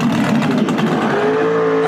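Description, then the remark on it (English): A loud muscle car engine roars steadily, then revs up with a rising pitch toward the end, a deep rumble that stays strong and unbroken throughout. “Get that, get that Detroit muscle going.”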